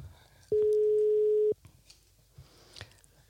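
A single steady telephone ringing tone of an outgoing call placed from Super Live Studio sounds loudly for about a second, then cuts off, leaving quiet background noise with a few faint clicks and no voices.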